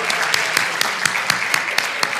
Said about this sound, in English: actually, let's give a round of applause to our folk orchestra